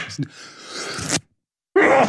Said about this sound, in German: Entschuldigung. Gesundheit.